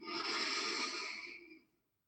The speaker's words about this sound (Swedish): Här ska vi ta ett djupt skönt andetag. Andas in.